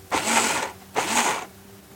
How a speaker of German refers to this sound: Und das Ganze mache ich jetzt mal kurz Krach. Es sieht aus wie ein Cocktail. Ich habe sogar mal einen Mixer hier draußen.